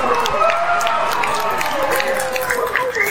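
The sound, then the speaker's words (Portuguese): A steady burst of audience applause for Fiuk at a book autograph session, many hands clapping in a dense, continuous patter, with voices calling and cheering over it throughout. “Palmas aí!”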